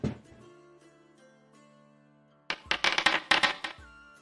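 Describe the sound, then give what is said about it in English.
Dice rolled for a dexterity roll clatter across a hard tabletop in a quick burst of bright, rattling clicks and bounces, following a faint lingering musical tone, with no voices over them. “Make me a dexterity roll.”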